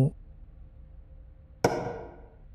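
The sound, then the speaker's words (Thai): Two separate finger taps on wood, a short one at the very start and a louder, slightly ringing tap after a pause of over a second, with no talking. “นั่นเสียงอะไรนะ่ะ เสียงมัน เสียงเหมือนกับคนเคาะนิ้ว”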